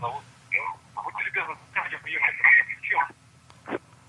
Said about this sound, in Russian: Давайте только радиоприемник выключим, чтобы не было у нас эхо. Алло. Здравствуйте, как вас зовут? Будьте любезны, давайте радиоприемник отключим.